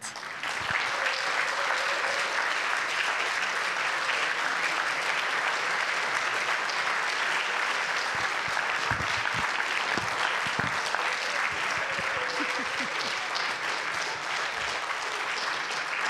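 Loud, sustained applause from a large crowd at FG Riechen, welcoming a guest appearing as Mary Magdalene, a dense wash of clapping that stays steady for about sixteen seconds with no one speaking over it.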